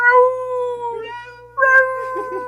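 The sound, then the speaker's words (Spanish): A voice imitates a cat meowing, like a cat bathing itself: two drawn-out, whiny meows, the first long and wavering, the second rising then falling, loud with a steady low hum underneath. “Como el gato que se está así bañando miau. Como el gato que dice”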